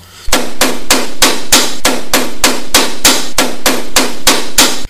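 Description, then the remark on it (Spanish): Loud, relentless pounding on a wooden door: over a dozen heavy blows in a fast, steady rhythm of about three per second, forceful, with no voices. “Parecía solo una lámina de madera resistiendo la arremetida de los estridentes golpes.”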